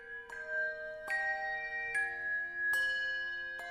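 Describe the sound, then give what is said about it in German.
Small bells made in Nuremberg, Germany, ring out in a steady series of five bright strikes, each leaving a shimmering, sustained tone that overlaps the next, with no voices present. “Wenn dort also die Kinder ihre Spielsachen rütteln und schütteln, dann läuten die Glöckchen aus Nürnberg.”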